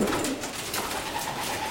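pigeons cooing

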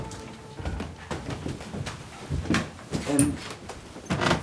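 doors being opened

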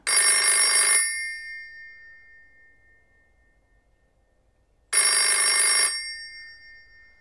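telephone bell ringing

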